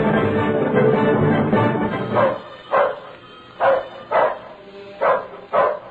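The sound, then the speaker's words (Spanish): A dog barks repeatedly: a burst of overlapping barks followed by five or six separate, evenly spaced loud barks with short pauses between them. “Váyase antes que lo destroce el perro.”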